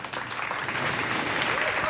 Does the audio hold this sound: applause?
yes